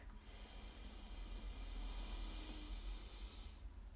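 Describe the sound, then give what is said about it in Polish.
A long, slow, deep inhale drawn in steadily for several seconds while focusing on the breath, a soft airy hiss with no talking. “Natomiast gdy skupiasz się też na oddechu, bardzo wolno bierzesz wdech.”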